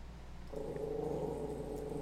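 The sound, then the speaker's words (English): A guard dog in a house lets out a low, sustained growl at someone up the block, starting abruptly and rumbling on steadily for a couple of seconds, moderately loud, with no one talking. “Stop barking.”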